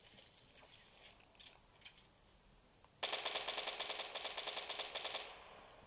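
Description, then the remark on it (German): Scattered single video game gunshots give way to a loud, sustained burst of rapid automatic fire, crisp, rattling on continuously for several seconds. “Dann wird einmal weggeschossen.”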